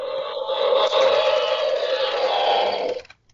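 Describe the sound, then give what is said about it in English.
A Mattel Jurassic epic roaring T. rex toy lets out a harsh, raspy electronic roar that holds steady and loud for about three seconds, then cuts off abruptly. No one speaks over it. “I got the the epic roaring T Rex.”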